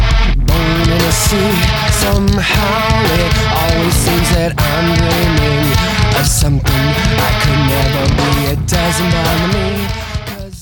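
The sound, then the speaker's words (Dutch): A loud, dense rock song plays continuously with heavy distorted guitars, pounding drums and sharp cymbal hits in a steady driving rhythm, fading slightly at the very end. “Ik zal de song even afspelen, dan horen we dat.”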